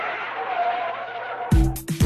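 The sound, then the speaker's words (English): A car braking sound effect: a sustained tire screech under hissing road noise, then loud, heavy low-pitched bursts cut in abruptly at the end. “Just before we say goodbye, it's time to hit the brakes one last time”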